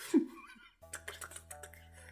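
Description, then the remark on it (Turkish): A quick run of sharp mechanical keyboard key presses, including the Enter and Space keys, about eight clicky taps in an uneven rhythm, after a brief burst of indistinct vocal sound at the start. “Mekanik klavye var ya evde atladığın tuşlarına basıp basıp.”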